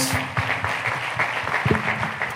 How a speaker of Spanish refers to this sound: Démosle palmas al Señor, queridos hermanos.